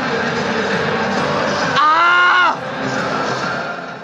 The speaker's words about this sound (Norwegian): Ja, det var nok mange flere enn NRKs reporter som ga fra seg et eh, spontant rop da Tyskland fikk inn det siste målet, som ga ett mål seier over Norge.